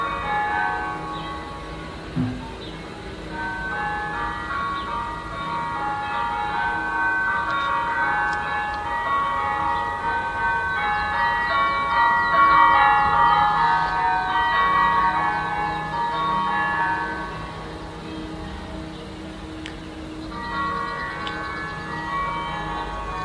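Church bells of churches across France peal together in a dense, overlapping wash of ringing tones that swells louder midway and carries on steadily for over twenty seconds, with no voices.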